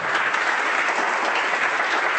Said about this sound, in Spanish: Buenos aplausos en la audiencia.